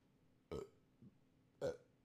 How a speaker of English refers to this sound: I got a burp.